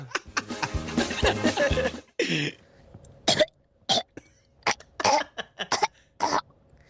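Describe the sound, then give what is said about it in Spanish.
A person imitates an orca call: a loud, strained, harmonic vocal squeal lasting about two seconds, then a string of short, sharp, clicking bursts at uneven intervals. “Ese es el, ese es el sonido de la orca.”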